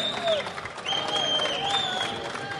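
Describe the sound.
An audience applauds in a steady, dense wash of clapping lasting a couple of seconds, with cheering voices and a few high whistle-like tones rising above it.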